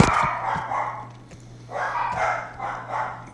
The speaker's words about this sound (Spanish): Ahí están los perros.